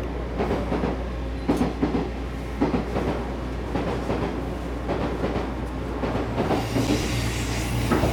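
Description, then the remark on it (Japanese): A 185 series Odoriko electric train passes on the single-track Izu Kyuko Line at Kawana Station, a steady low roar with rhythmic clacks of wheels over rail joints repeating throughout, no voices present. “列車は今川名駅で運転停車をしています伊豆急行線は単線の185系踊り子が通過していきました”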